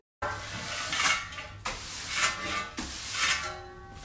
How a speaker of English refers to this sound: In case you still couldn't get it, that was the sound of me sweeping. I had a broom and a metal dustpan, and I was sweeping the floor of all the dust and debris that had somehow made it into my house.